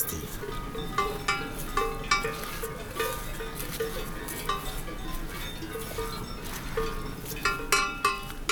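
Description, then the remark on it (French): Horse bells (sonnailles) clank irregularly and continuously, several ringing at once in a loose, jangling rhythm, with faint outdoor ambience and no talking. “des chevaux des sonailles. Paysage sonore, habituel”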